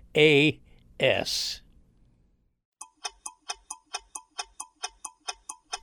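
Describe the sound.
After a brief burst of voice, a clock ticks steadily, about a dozen crisp, evenly spaced ticks in a quick, regular rhythm with nothing else underneath.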